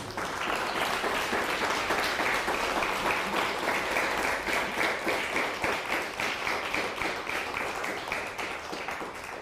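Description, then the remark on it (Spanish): An audience applauds to God during a sermon, many hands clapping in a dense, loud, continuous wash for several seconds, with rhythmic pulses emerging toward the end as the clapping falls into a beat. “Me falta aplauso al Eterno.”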